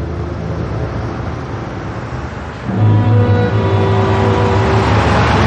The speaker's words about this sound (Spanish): Un coche dobla una esquina y enfila la calle en la que él se encuentra.